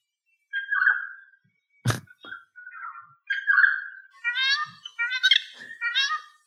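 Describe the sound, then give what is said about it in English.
A Regent Honeyeater that learnt its song from a noisy friarbird sings: a run of clear, harsh gurgling and nasal phrases rising toward the end, with one sharp click partway through and no talking. “And this is what a Regent Honeyeater that's learnt to sing from a noisy friarbird sounds like.”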